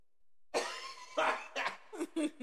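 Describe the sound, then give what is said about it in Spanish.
A harsh fit of coughing: one long rasping cough followed by about four shorter, quick coughs in an uneven burst, with no talking. “Dilo tuvo porque traigo un chico de tos.”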